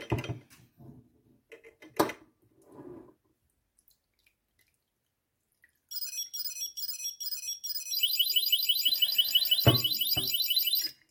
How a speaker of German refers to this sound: hat man jetzt zuerst gehört, der erste Ton sind ähm, zwei längere Stäbchen und ein kürzeres. Der erste Ton sagt, Achtung, langsamer, ist gleich voll. Und der letzte gibt halt wirklich Alarm und sagt, also jetzt ist, ne, reicht.